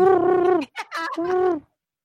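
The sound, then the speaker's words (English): A voice imitates a carrier pigeon cooing: a loud, drawn-out throaty coo, a brief warbling break, then a second sustained coo, heard alone with no other talking. “Fine, so, that carrier pigeon. He's gonna talk.”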